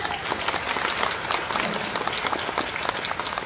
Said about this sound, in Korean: 也还有我们的职员们，给他们热烈的掌声。